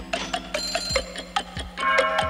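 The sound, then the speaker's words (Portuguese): A clock's alarm chimes and rings with repeated bright metallic strikes in a steady rhythm, building into a sustained ringing near the end. No one speaks. “Eu não sei se dá para contar, tem um relógio também, né? Que ele sempre meio que ele dava o ritmo, né?”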